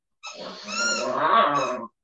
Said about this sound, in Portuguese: é o Tobias, que está brincando aqui com o seu martelo do Thor. Se estiver incomodando o barulho aí, galera, dê um toque aí nos comentários que daí eu já tiro a, o apitinho do, do, brinquedo dele ali. Mas olha, ele late pro próprio brinquedo de raiva.